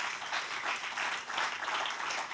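Sustained applause for the Lord from a crowd during an evening sermon, a dense, steady wash of many hands clapping at once with no gaps, fairly loud and even throughout.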